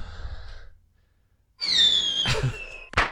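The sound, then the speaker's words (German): A door swings shut with a drawn-out, high squeak of the hinges, then a solid latching thud and a short sharp knock just after, following a brief quiet pause. “Genau, ich mach die Tür wieder zu.”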